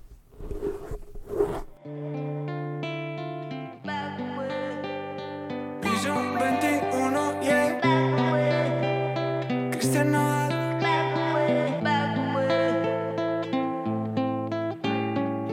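A short scratchy rustle gives way to a song's instrumental intro: full, sustained chords and melody notes changing at a steady pace, loud, with no singing yet.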